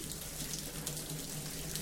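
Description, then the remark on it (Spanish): A steady, hissing rush of running water from a shower while a person showers, constant, with a soft spattering texture and no voices throughout. “Claro, lo fácil hubiera sido como mis magníficos compañeros de podcast coger un sonido de ducha, ponerlo de fondo, editarlo, dejarlo todo muy bonito.”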